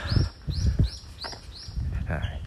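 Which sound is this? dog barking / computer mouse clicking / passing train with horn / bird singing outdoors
bird singing outdoors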